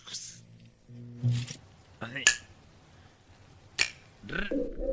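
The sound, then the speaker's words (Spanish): A voice imitates the crackle of old TV static with short, breathy hissing bursts and clicks, interspersed with hummed and voiced noises. “Hay que poner como ruido de tele vieja, ¿cómo es? A ver. ¿Estática?”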